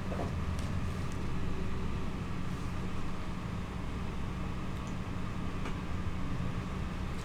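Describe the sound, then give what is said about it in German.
Steady, low rumbling drone of a moving train heard from inside a carriage, continuous and fairly loud, with faint rattles and occasional light clicks over the constant hum. “Ja, und wenn ich dann so im Zug sitze, gerade wie heute, und mich dann an die Zeiten von damals erinnere, dann genieße ich das sehr.”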